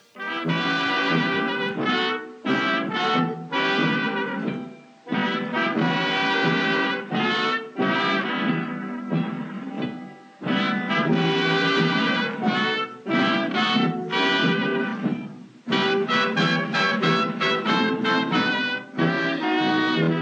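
A 1930s-style big band jazz orchestra plays loud, brassy ensemble phrases in punchy bursts separated by brief pauses, up close and instrumental with no singing.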